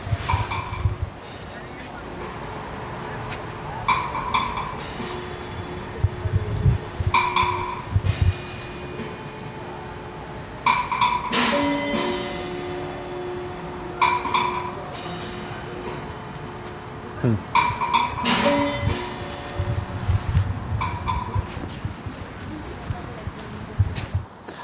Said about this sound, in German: Das ist eine große hölzerne Trompete. Kommen Geräusche raus.